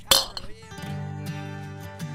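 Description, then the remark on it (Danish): A single bright clink of glass jam jars filled with alcohol knocking together in a toast, ringing briefly before music fades in underneath and carries on. “Nå, men skål i moonshine, eller i hvert fald alkohol, som vi har puttet i syltesøjsglas.”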